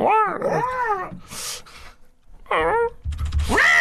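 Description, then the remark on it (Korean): A person doing voice work for a script imitates a dog with a series of "meong" yelping, whimpering barks, high and wavering in pitch, in short bursts with brief gaps, fairly loud, ending in a rising howl-like yip. “아, 일단 멍 소리 한번 해야 돼요.”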